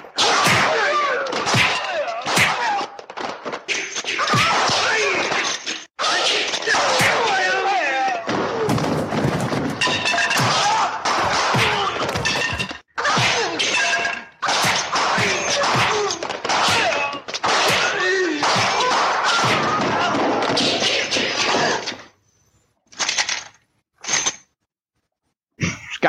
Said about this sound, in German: Also, lass mal kurz unterbrechen, ich muss was an der Tür tun, die bollert nämlich ständig.